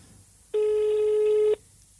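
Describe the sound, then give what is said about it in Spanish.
A single steady phone ringback tone sounds for about one second, clear and fairly loud over a quiet background, then cuts off abruptly. “Bueno, de momento da tono.”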